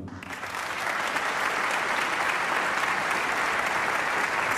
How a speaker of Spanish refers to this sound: quiero pedirle un gran aplauso para mi amigo, colega y compañero de ruta